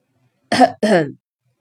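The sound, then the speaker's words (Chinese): A man coughs in two quick, rough bursts, the second slightly longer, loud and voiced, with silence before and after and no talking. “他咳嗽了一声。”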